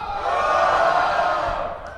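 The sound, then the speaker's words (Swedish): A live audience shouts and cheers together in a loud, sustained roar that holds steady for about two seconds before easing slightly at the end, answering a poll on how many of them plan to buy an Xbox One when it comes out. “Kan ni inte skrika istället så att vi får lite...”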